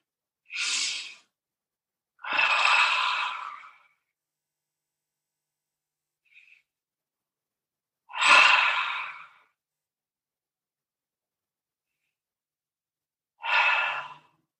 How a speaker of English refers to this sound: And let's breathe through our nose this time. And exhale through our mouth with a real loud sound.